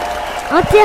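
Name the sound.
audience applause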